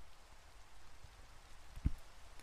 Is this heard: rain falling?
yes